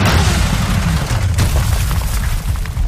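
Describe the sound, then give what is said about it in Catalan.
A deep, rumbling boom from the Mission: Impossible movie trailer, loud and sustained with heavy low-end energy and a sharp crack partway through, with no voices over it. “Us sembla escoltar el seu tràiler de Missió Impossible?”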